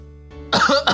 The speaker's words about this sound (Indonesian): batuk kayak gue